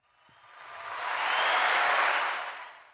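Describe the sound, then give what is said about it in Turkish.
A burst of crowd applause sound effect swells in, peaks as dense clapping and cheering, then fades slightly toward the end; no one speaks over it. “Alkışlar, efektler.”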